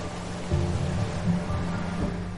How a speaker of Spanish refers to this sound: Llueve con mucha fuerza.